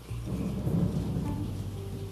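Heavy rain pours steadily while a deep rumble of thunder rolls underneath, swelling briefly and then settling into a continuous low roar; no one speaks.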